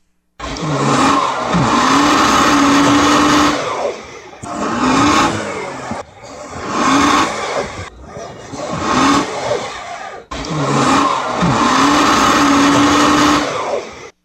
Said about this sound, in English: And I would even point out, Bob, that that is actually a Jeep that is making that noise.